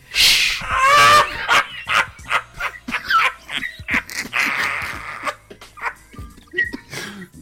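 A dog barks and yips in quick, uneven bursts, loud at first, then keeps going in shorter, sharper barks with some whining between them.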